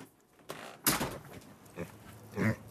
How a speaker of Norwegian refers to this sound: De er sultne, er de? Ja, de skal få frokost, minigrisene.